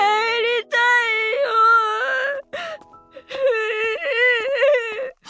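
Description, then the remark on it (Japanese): A child crouched by a roadside in the dark, hugging their knees after tripping and scraping a hand, sobs and wails in two long, wavering, high-pitched cries, separated by shaky gasping breaths. The crying is loud, with no talking. “道端にうずくまると膝を抱えて泣き出してしまいました”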